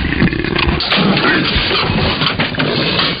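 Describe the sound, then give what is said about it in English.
A leopard escaped from a zoo growls and roars loudly in a home kitchen, a rough, continuous snarling that fills the whole moment with no voices present. “Your leopard is in my kitchen.”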